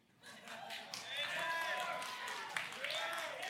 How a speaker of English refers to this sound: Uh, no, y'all are clapping for something you haven't experienced in like a long time.